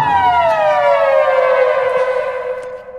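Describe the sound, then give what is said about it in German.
A loud alarm siren wails alone, its tone sliding steadily downward from a high pitch over three seconds, rich with harmonics and no voices over it. “Achtung, Achtung! Zerfickungsalarm.”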